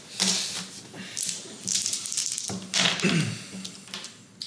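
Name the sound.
dice being rolled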